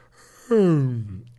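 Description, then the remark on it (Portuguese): A man fakes a yawn: one drawn-out voiced sigh that starts abruptly and slides downward in pitch, loud, lasting about a second before fading. “E o cara fingiu que bocejou hum.”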